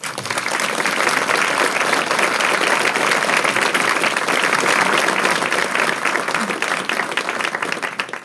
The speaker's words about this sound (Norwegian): Gi Wenche en god applaus.